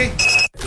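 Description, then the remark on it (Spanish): A Verisur home security alarm beeps as it is armed: a short burst of high, electronic tones with a quick pulsing pattern, fairly loud, cutting off after a fraction of a second. “Amor, activa la alarma, cierra la puerta y vamos, que se hace tarde.”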